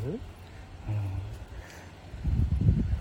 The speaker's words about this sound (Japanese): 右手にタブレットを2台持ちながらはい暑いところ歩いております午後何時ですか今もう12時過ぎましたよね、えー、風の音します